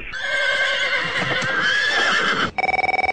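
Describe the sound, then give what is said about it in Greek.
A horse left outside a café in Texas neighs loudly in one long, quavering whinny lasting a couple of seconds, followed by a short burst of rapid, evenly pulsed tones. “Δηλαδή αφήνετε το άλογο σα, πάτε μέσα και ακούτε ελληνοφρένεια”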